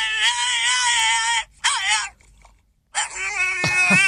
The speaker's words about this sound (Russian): Какой ужас. Это металл. Ужас. Это когда поют собаки.